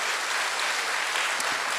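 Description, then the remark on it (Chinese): A church audience applauds to welcome the brothers and sisters watching online, a dense, steady wash of many hands clapping together with no pauses, holding an even loudness throughout. “我们大家鼓掌欢迎他们，快快回家。”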